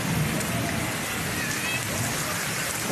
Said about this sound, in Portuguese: Aqui, Rua João Gonçalves, Bonito Santa Fé, muita chuva.